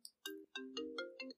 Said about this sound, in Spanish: Perdón por ese ruido, fue mi teléfono.